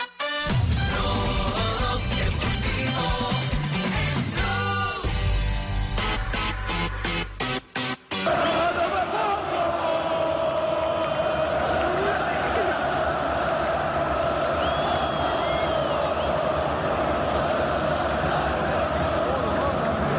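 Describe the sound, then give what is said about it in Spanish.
A huge stadium crowd roars and cheers loudly and continuously, a dense, sustained wall of voices with chanting tones, following a brief burst of busy, music-like sound at the start, greeting the return of footballer Falcao. “Así recibieron el regreso del Tigre Falcao.”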